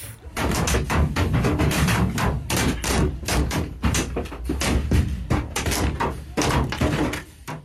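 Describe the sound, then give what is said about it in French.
Stones and Molotov cocktails pound a gendarmerie van from outside, filmed by a gendarme inside it: a rapid, irregular barrage of loud metallic bangs and thuds that continues for several seconds, with faint shouting underneath. “Un gendarme se filme alors qu'il est à l'intérieur de son camion, pris pour cible par des jets de pierre et de cocktails Molotov.”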